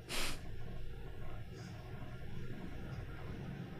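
A train passing by outside, heard as a low, steady rumble that continues throughout, faint, opened by a short breathy hiss.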